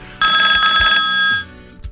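A telephone rings with a steady, bright electronic trill lasting about a second, loud, then cuts off, leaving a faint low background with soft thumps; the call is from the Chief Minister of Maharashtra, Vasantdada Patil.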